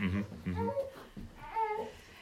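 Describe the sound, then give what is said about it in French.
A baby in the audience babbles in short, sing-song vocal bursts, with brief pauses between the sounds, rising and falling in pitch. “le bébé va nous dire que c'est l'heure de, D'ouvrir une bouteille.”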